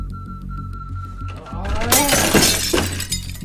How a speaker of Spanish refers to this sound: Un día llegué a mi límite. Tomé la única silla que tenía y la estrellé contra el espejo.